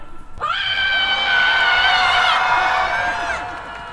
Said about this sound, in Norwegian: Våg å brøle så høyt du kan!